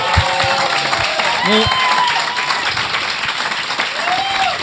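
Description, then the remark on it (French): A crowd applauds steadily for several seconds, dense clapping filling the whole stretch at an even, loud level, with a few cheers and whoops rising above it. “Applaudissons donc Mike et Daniel.”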